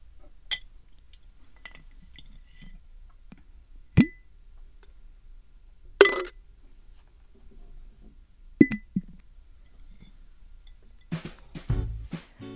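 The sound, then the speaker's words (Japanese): A thin coaster is dropped into a glass jar to store it, giving a few bright clinks and taps spaced out over several seconds, followed by a brief cluster of small rattling contacts near the end. “では今日もこのコースターをガラス瓶に入れて保存したいと思います”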